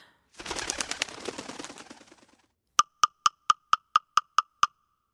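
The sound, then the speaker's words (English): A woodpecker pecks in a quick, even run of about eight sharp, hollow knocks, coming just after a brief burst of rustling, flapping noise. No one is speaking. “Woodpecker, don't get any ideas.”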